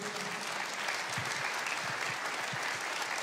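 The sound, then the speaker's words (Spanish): An audience gives the Lord a strong round of applause, clapping steadily throughout in a dense, even wash of many hands with no voices standing out, holding at a constant moderate loudness for the whole stretch. “Si alguien aquí lo cree, quiero que le dé al Señor un fuerte, fuerte aplauso.”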